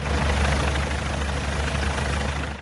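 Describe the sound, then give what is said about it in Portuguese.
Low-flying Military Police and fire brigade helicopters roar overhead during a police search near Brasília, Brazil, in a loud, steady wash of rotor noise with a deep thumping pulse underneath, filling the whole stretch before cutting off abruptly at the end. “Helicópteros da Polícia Militar e dos bombeiros sobrevoavam baixo.”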